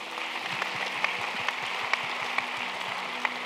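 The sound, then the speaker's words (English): A crowd claps steadily in sustained applause, a dense patter of many hands with a few sharper, louder claps standing out, and no voices over it. “And so give them a round of applause.”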